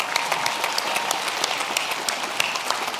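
An audience applauds steadily, dense overlapping claps forming a continuous bright patter at an even loudness for the whole stretch, with no voices standing out.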